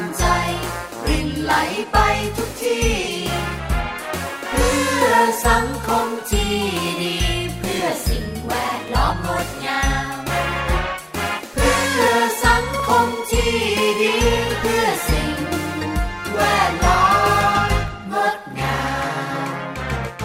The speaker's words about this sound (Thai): ผมได้ฟังเพลงเพราะๆแบบนี้แล้ว